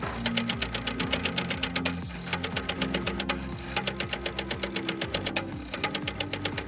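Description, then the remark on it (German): Rapid mechanical stamping and clacking from a ticket validator machine cancelling tickets, a fast steady run of sharp clicks with brief pauses, fairly loud, with a low motor hum underneath and no talking. “So hört sich das übrigens an, dieses Geräusch, worüber wir eben gesprochen haben, dieses Stempelgeräusch und Klackern.”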